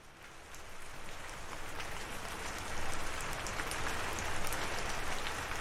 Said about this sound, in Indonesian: Malam itu hujan turun.